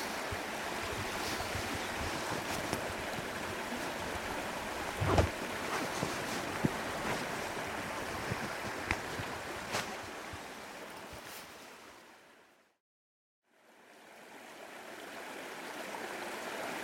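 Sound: river water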